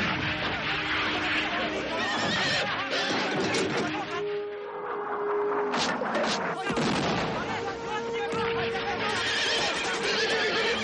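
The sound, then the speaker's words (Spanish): Horses neigh and whinny repeatedly as men reach them to flee, amid a loud, dense commotion of clattering hooves and bursts of gunfire as Chinese soldiers fire machine guns on a Tibetan camp, with indistinct voices mixed into the din throughout. “hombres logran alcanzar los caballos para huir en ellos, pero en inmediato los chinos disparan con sus ametralladoras.”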